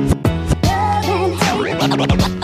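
Turntable scratches cut in with quick, rhythmic back-and-forth swipes and pitch sweeps over a steady, loud hip-hop backing track, with no vocals.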